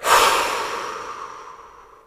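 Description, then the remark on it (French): A single strong, breathy exhale, a forceful whoosh of air blown hard, that starts abruptly and slowly fades out over about two seconds, with no talking. “Puis prends une grande inspiration et souffle fort dessus.”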